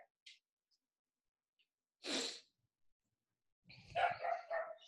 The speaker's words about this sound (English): Okay, because I'm gonna make sure that that dog thing doesn't happen again. All right, go put that dog where it needs to go.